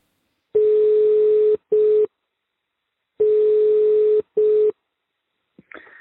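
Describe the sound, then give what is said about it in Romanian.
A telephone ringback tone sounds in two double bursts, each a longer steady tone followed by a shorter one, separated by silence, clear, ending with a faint click as the line connects. “Iar la câteva zile distanță purtam prima noastră conversație la telefon.”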